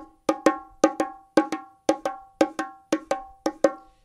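Bongo drums play a steady run of eighth notes with an uneven, lilting shuffle feel, paired long-short hits ringing out clearly and alone at a moderate volume.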